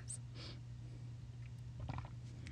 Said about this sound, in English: Oh God, God, that was a deep swallow. Sorry. I took a drink of water. Um, I'm taking another one.